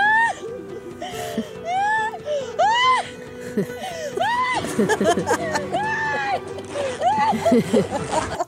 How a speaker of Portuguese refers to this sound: há ainda outro trunfo importante desta novela, como vos dizia há pouco, que são cenas de choro super credíveis.